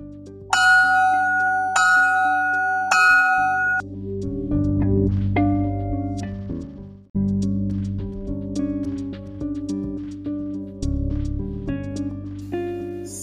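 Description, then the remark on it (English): A school bell chimes loud, three bright ringing strikes in quick succession, followed by a sustained melodic tone sequence that carries on with no one talking. “You better get to class before the bell rings.”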